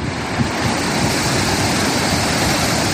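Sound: rough stormy sea waves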